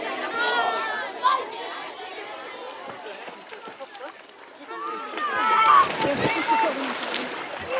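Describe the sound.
Excited children's voices chatter and shout over scattered splashes of cold water as small children in colourful swim trunks run back and forth in summer, with running feet and sloshing, busy and lively throughout.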